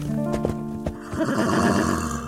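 A horse neighs loudly, a bright whinny with a quavering, harmonic tone that rises then breaks into rougher fluttering snorts, with faint hoof-like knocks underneath.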